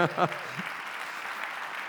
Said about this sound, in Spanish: Denle un aplauso al Señor si usted quiere.